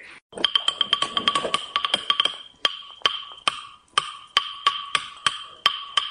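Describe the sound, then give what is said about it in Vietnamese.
A wooden ca tru clapper (phách) struck with two beaters, a quick flurry of crisp clacks that settles into a steady, evenly spaced beat, bright, with no voices. “thì như thế khi mà gõ xuống cái tiếng bên đây nghe nó mạnh mà nó tròn cái tiếng bên đây nghe nó rè mà nó dẹp”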